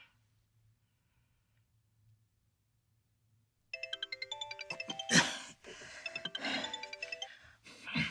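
A phone rings with a bright, melodic ringtone that starts abruptly after several seconds of near silence, repeating in quick tonal bursts with a few soft thuds and rustles mixed in. The call is from Lindorf, at nearly four in the afternoon.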